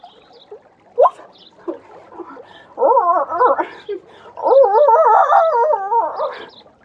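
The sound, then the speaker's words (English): A woman walking alone by the banks of a stream in the evening imitates a hound's howl: a few short yelping cries, then two long, wavering, warbling howls, the second the longest and loudest. “… spent a solitary hour walking by the banks of the stream, making what she imagined to be hound noises”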